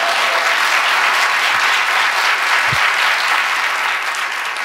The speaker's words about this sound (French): ben oui, on peut applaudir, évidemment.